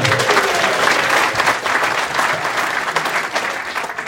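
A crowd claps for a woman coming forward as a contestant in a prize quiz. The applause is a dense, sustained wash that stays loud throughout, tapering only slightly toward the end, with no voices standing out.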